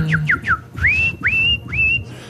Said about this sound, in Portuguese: 11 apitos que emitem som de pássaros.